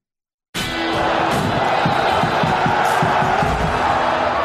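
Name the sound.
applause and cheering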